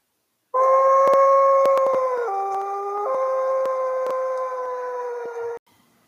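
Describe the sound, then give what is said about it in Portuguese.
A single long wolf howl from a dark part of a forest, loud, held for about five seconds with a few stepwise drops in pitch before cutting off abruptly. “vindo de uma parte bem escura da floresta. Era o temido lobo mau.”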